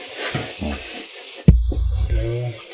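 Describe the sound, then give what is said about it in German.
A steady, fairly loud fizzing hiss like a freshly poured carbonated soft drink, broken midway by a sharp pop and followed by lower, murmuring, voice-like sounds. “Zisch ist der Sound der Spreit.”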